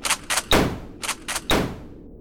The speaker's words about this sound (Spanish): Una vez dentro, Charles disparó con su escopeta dos disparos a la cabeza de Robert